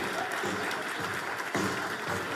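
A church audience breaks into a round of applause, a dense, steady wash of many hands clapping at once that stays loud and even throughout, with no single claps standing out.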